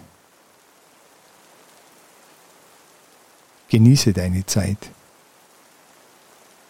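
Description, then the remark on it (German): Steady, soft rain patters continuously as heard from inside an old wooden barn with racks for drying hay, an even hiss with no pauses. Midway through, a man speaks one short calm phrase over it. “Innerhalb weniger Minuten zieht der Himmel zu und ich finde gerade noch Schutz in einer alten Holzscheune mit Schwedenreitern zum Heutrocknen.”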